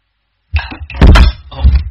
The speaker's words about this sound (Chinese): Sorry，一激动啊，这个麦倒了。